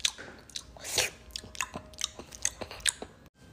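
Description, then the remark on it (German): Loud open-mouthed chewing of food with wet lip smacks and clicks, repeating irregularly about every quarter second, heard alone without any talking. “Könnten Sie das auch mit Mund zu und ohne schmatzen?”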